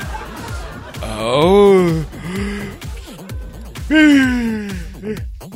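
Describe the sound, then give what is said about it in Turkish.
Two long, voiced yawns, each a drawn-out groaning tone that swells and then sinks, over a steady, pulsing beat in the background. “bak esnemekten yemin ediyorum timsah çenesi gibi ayrılıyor çenem ya.”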